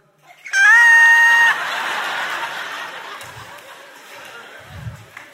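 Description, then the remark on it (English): A voice lets out a loud, high-pitched squeak lasting about a second, a thin sustained tone mimicking a squeak, followed by a wash of crowd noise and faint chatter. “Y'all ever squeaked? Thank God for this loud music, huh? Because sometimes all you can get out is a.”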